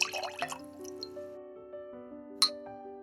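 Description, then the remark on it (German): Peppermint liqueur is poured into a large tankard, its ringing tone rising steadily as it fills, with a light glassy clink near the end. No one speaks. “Das ist halt so ein Riesenhumpen, den du uns eingeschenkt hast.”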